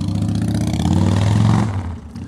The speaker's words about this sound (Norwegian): Det kan være at dere ikke hørte det, fordi jeg sitter med mikrofon to millimeter fra pustetrynet mitt. Men helvete, det kommer motorsykkel! Og er det noe jeg forakter over alt i hele verden, så er det bråkesykler.